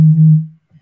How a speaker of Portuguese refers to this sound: que barulho é esse? Fala, meu telefone tocando.